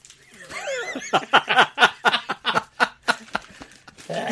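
A horse whinnies: a wavering high squeal that slides downward, then a quick run of rhythmic, breathy pulses, clear with no talking over it.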